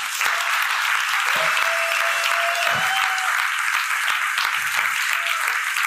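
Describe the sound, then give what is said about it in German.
Sustained audience applause for Kevin, a general secretary and member of the German Bundestag, a dense steady wash of many hands clapping at an even loudness for several seconds, with a faint tonal whistle or feedback line running through part of it. “Dafür einmal bitte einen großen Applaus für Kevin.”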